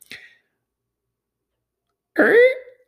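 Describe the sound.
A voice imitates a gate creaking open at a rodeo-like arena with a dirt pit: a short breathy puff, a pause, then a loud, strained, pitch-bending vocal groan lasting under half a second.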